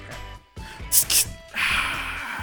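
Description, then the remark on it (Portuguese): A beer can cracks open with two quick, sharp hisses, followed by a longer steady fizz, at 11 at night. Someone speaks briefly and laughs around it. “eu vou até abrir uma cerveja aqui”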